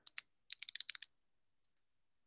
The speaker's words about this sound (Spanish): Y eso que se escucha es una pluma